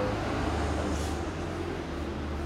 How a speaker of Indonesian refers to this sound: ada truk lewat kedengeran kan malam nih banyak iklan banyak kendaraan lewat Itu banyak lewat dong